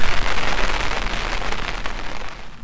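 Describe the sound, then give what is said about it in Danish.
Steady rain patters hard on a surface on a windy day, a dense continuous hiss with scattered droplet taps, fairly loud, easing slightly toward the end. No voices. “Jeg har øh, shorts på og en, øh, øh, en t-shirt og en lille, og en lille pullover nu, hvor det, hvor det blæser og regner så meget.”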